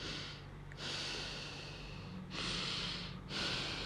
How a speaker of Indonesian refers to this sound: ketika saking gue pengen heningnya yang gue dengar napas gue sendiri dan gue lupa itu bunyi apaan ya gitu terus bunyi napas gue sendiri gitu